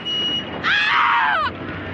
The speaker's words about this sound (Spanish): Con un grito de horror, la mujer vuelve a la casa en llamas.